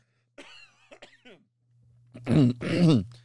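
Someone whose throat is blocked up makes a few short, strained throat noises, then lets out two loud, rough coughs back to back, with a faint low hum underneath.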